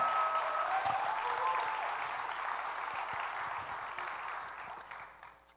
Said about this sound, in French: On les applaudit encore. Vous avez fait un job extraordinaire.